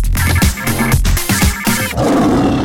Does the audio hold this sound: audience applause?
no